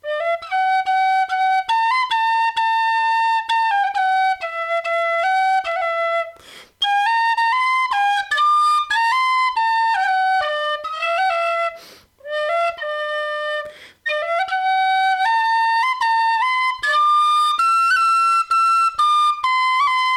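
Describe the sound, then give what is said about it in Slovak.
An Irish tin whistle plays a lively melody of bright, pure notes with quick ornaments, loud, moving steadily through short phrases with brief breath pauses and no talking. “No a teraz sa vám pokúsim niečo na írskej píšťalke zahrať, takže dávajte pozor.”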